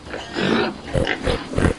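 A pig grunts and oinks in a run of short, snuffling bursts, fairly loud, with no one talking.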